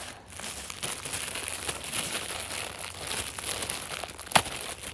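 Continuous plastic crinkling and rustling as a plastic bag is handled and its tie is undone, with dense crackly bursts and one sharper snap near the end; no voices.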